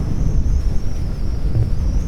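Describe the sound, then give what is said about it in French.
Strong snowstorm wind roars steadily and loudly throughout, a deep buffeting rumble with a thin, high whistling howl running above it, and no voices. “Je suis bloqué par une tempête de neige.”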